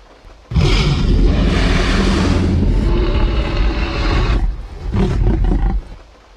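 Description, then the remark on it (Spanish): A massive, drawn-out Tyrannosaurus rex roar from the film Jurassic Park dominates, loud, with a deep rumbling bellow lasting several seconds, a brief dip, then a second shorter surge before fading. No voices are heard. “No puede vernos si no nos movemos.”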